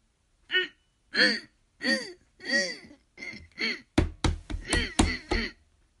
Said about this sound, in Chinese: 就在这个时候，冰箱里突然传出声音，紧接着是敲击的动静。